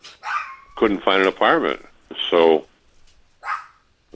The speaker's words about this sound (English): Oh, that's your dog, I hope. Yes, that is my dog. Don't worry about him. I'm, he's like out of arm's reach.